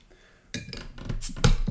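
Someone rummages through a kitchen drawer, utensils clattering and clinking in a quick, irregular jumble of rattles and sharp metallic knocks after a brief quiet start, with no talking.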